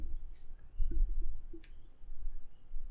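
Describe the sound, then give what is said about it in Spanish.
A microphone stand being shifted, giving a few sharp clicks and knocks over a low rumbling handling noise, with no one talking. “Pero van a estar escuchando ese estruendo ahora mismo porque es el stand del micrófono.”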